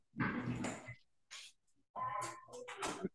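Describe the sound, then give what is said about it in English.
A dog pokes its head through a door and opens it, making a few short, noisy bursts of sound, snuffling and a brief whine, in quick succession with short pauses between them. “My go dog ahead. poked his head through the door and opened it.”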